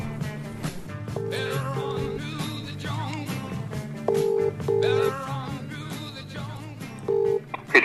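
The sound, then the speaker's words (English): Short electronic telephone tones beep in clipped pairs, like a number being dialed and a line ringing, as a phone call is placed for an interview during lockdown, sounding over a steady bed of background music with no one speaking. “As the interview was done during lockdown, I spoke to him by phone.”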